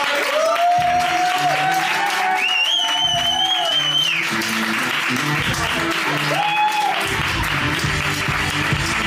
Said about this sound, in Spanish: Muchas gracias, un aplauso, por favor.